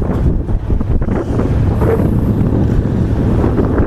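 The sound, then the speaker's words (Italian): A boat at sea at night takes the waves on the bow, water rushing, lapping and thudding against the hull beneath a steady roar of a land breeze buffeting the microphone, loud throughout with no voices. “Sentite che prendiamo il mare di prua che è sempre consigliabile proprio per avere una navigazione il più possibile stabile andiamo al mare di Pru e ascoltate ancora sempre sotto di me lo sciabordio delle onde.”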